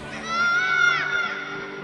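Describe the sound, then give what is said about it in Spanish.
A child's shrill, sustained scream rises over the busy background chatter and shouts of many children playing ball in a school garden, lasting about a second before fading back into the crowd noise. “Un día, mientras todos los niños jugaban a la pelota en el jardín de la escuela, se escuchó el grito de uno de ellos.”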